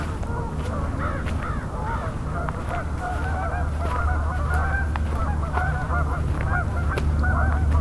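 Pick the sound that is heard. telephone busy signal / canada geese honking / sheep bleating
canada geese honking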